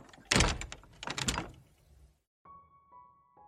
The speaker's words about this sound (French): En rentrant de l'école, Harry pousse négligemment la porte de la maison.